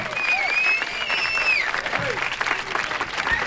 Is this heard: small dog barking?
no